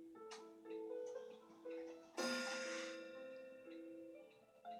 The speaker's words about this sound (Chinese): 钟声响起了，应该到半点了。